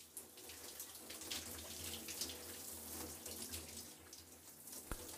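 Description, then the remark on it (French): Lukewarm shower water runs in a steady, hissing spray in a bathroom, streaming over a person's face, continuous and fairly soft throughout, with a brief sharp click near the end and no voices. “L'eau tiède de la douche, ruisselant sur son visage, termina de lui remettre les idées en place.”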